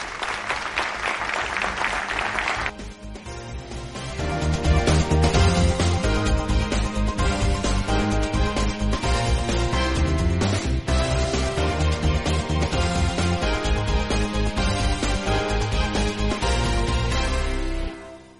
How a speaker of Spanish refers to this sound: Un fuerte aplauso para todos vosotros y para los ponentes.